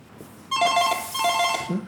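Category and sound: signal or alarm, telephone ringing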